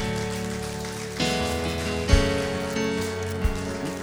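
An audience at a church service claps loudly and continuously for the Lord Jesus, a dense crackling wash of applause filling the space, with sustained organ-like music tones running underneath and a couple of sharper thumps.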